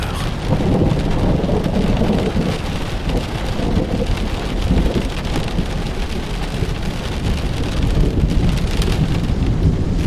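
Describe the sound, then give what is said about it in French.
A thunderstorm with steady, heavy rain pattering and deep thunder rumbling underneath, continuous and fairly loud for the whole stretch, with no voices. “A l'abri d'un orage”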